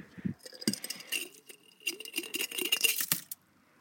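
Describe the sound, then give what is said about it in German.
Irregular clattering and clinking as something is rattled on odd slushy ice, a burst of sharp glassy taps and scrapes over a few seconds with no one talking. “komisches Slush-Eis da. Junge, ich, ich schepper da jetzt was drauf.”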